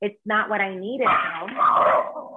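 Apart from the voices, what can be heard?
dog barking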